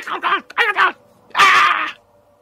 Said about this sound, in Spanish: Es la voz de ese hombre grande que fue el que os amenazó en inglés y que era el líder, o aparentemente el líder de esos tailandeses que, o siameses que os rodearon. Se escucha su voz gritando.